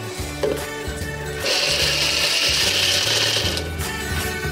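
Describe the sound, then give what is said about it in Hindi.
A loud grinding of roasted fox nuts (makhana) being coarsely crushed, not finely ground, for kheer: a gritty rattling crunch with a rhythmic low thumping, swelling into a harsher sustained burst midway before easing back. No one speaks. “लेकिन मुझे ऐसे थोड़े क्रश करके अच्छे लगते हैं ज़्यादा नहीं पीसना है इसको थोड़ा सा क्रश करते हैं अगर ऐसे पूरे पीसेस रह गए हैं तो वापस इसको डाल सकते हैं या तो थोड़ा गार्निश के लिए भी रख सकते हैं पीस लेते हैं”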